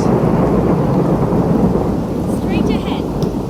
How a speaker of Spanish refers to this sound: O sea, maldición, empezó a llover, me estás jodiendo.